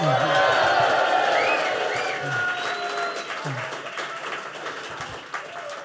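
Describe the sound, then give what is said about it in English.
An audience cheers and applauds loudly for Ange Postecoglou, credited with the Celtic revival, a dense wash of clapping with shouts and whoops rising through it, gradually easing slightly in intensity over several seconds. “A cheer for Ange.”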